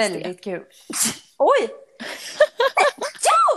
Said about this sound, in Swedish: du nyser så gulligt. Alltid två gånger.